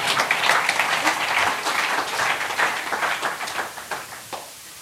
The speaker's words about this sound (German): Macht das gut? Dann gebt ihm mal einen Applaus.